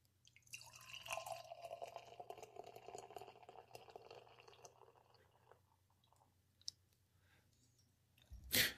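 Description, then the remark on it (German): Beer pours steadily into a glass for several seconds, a bubbly gurgle that gradually thins out and fades, followed by quiet and a short sharp knock at the end. “Ich wollte es einschenken hören.”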